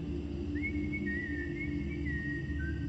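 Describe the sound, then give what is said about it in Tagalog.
A person whistles a short, wavering tune at night, the clear tone rising and falling over a steady low rumble of background noise, with no one talking. “Bawal pong sumipol sa gabi.”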